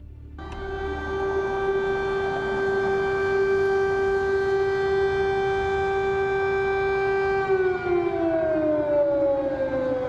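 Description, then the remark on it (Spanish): An air raid emergency siren in Kyiv, Ukraine, wails loudly and steadily in one sustained tone, then begins to slide downward in pitch near the end, with a low rumbling background and no voices. “suenan las sirenas de emergencia en Kiev, la capital de Ucrania.”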